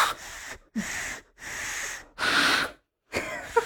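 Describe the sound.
Four breathy blows into cupped hands, thumbs held side by side with a small gap, like playing an ocarina, as two people try a hand whistle; each blow about half a second with short pauses between, airy and hissing with only a faint hint of a whistle tone. No talking.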